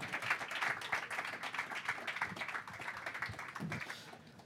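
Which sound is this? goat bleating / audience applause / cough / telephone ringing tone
audience applause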